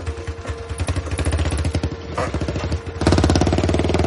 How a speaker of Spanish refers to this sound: Chichina ve alejarse la moto.